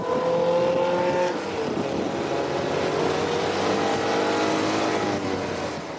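A small Citroën 2CV Barbot race car engine revs loudly and steadily during a race, its buzzing harmonic whine climbing gradually in pitch as it accelerates, with a continuous rough drone and no voices.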